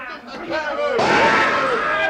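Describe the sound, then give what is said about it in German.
Raised voices shout, then a single sharp gunshot cracks in, followed by a loud, sustained wash of battle noise and yelling as a ship's crew and its captain fight pirates. “Ah, diesen Schuss sollst du mir bezahlen, Kanaille!”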